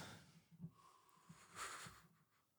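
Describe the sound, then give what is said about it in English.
Loud, heavy breathing, with rough, wheezy exhales and a snorting intake of air, repeating in uneven surges and no talking. “Why are you why are you breathing heavy?”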